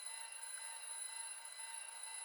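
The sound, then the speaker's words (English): Steady electronic alarm tones from several alarm clocks going off in the bedrooms of a house ring continuously, high pitched beeps layered together at a constant level, with no voices present. “When you walk up the stairs, you will walk past all of the bedrooms and you will hear the alarms going off in all of them.”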